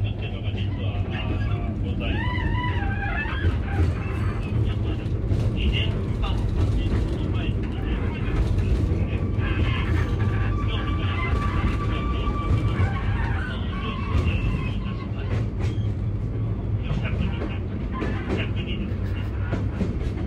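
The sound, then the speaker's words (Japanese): Steady rumble of a train carriage rolling along the rails as it nears Senzu Station, with rhythmic clatter and occasional metallic squeal, while an onboard voice narrates faintly in the background throughout. “千頭駅に着くところなんですけども車内で、えー、車窓さんの朗々と語るお話がずっと聞こえています。”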